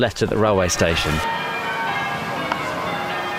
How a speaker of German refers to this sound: Die Glocken der dortigen Kirche sind schon von weitem zu hören. Sie begleiten uns beim Abstieg nach Treffy Clouth, wie Neiten auf Walisisch heißt,